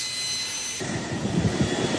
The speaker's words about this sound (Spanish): Proceder al despliegue de los medios aéreos. Proceda a despegar los aviones Sukhoi 30 MK2